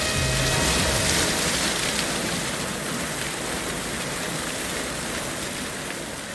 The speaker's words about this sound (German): Der Wagen fährt schlängelnd davon, genau in einen Hydranten. Eine riesige Wasserfontäne schießt in den Himmel.